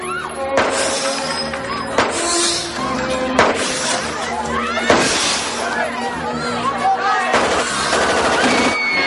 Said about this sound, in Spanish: Los matones disparan desde el casino.